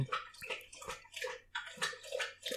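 Close, wet slurping of water being drunk, a quick rhythmic series of about six sloppy laps in a row, fairly loud, with no talking.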